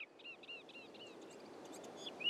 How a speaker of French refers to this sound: Dans ce buisson chante une fauvette noire, un tout petit oiseau bien connu de nos jardins. Le mâle a un plumage gris et une calotte noire sur la tête, à la différence de la femelle qui a une calotte brune tirant un peu vers le roux.